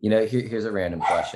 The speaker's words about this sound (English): That's, my, that's my dog.